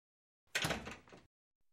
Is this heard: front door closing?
yes